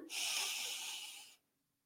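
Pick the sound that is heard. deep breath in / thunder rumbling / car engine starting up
deep breath in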